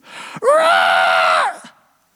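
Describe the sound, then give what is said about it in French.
A voice imitates the scream of a feverish man as hands are laid on him in prayer: one loud, sustained, strained cry lasting about a second, rising sharply and then cutting off, with no talking around it. “Et à ce moment-là, il hurle”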